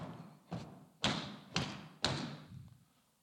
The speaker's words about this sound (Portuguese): Mas aí depois você escutou os passos. Aí foi diminuindo, diminuindo.